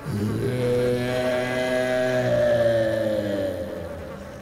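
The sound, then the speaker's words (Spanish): A steady, droning buzz of a swarm of fetid flies, layered and humming, holding for several seconds with a slight wavering in pitch before easing off a little at the end. “Esta abrió su boca y comenzó a salir de ella un enjambre de fétidas moscas que se esparcieron por toda la habitación.”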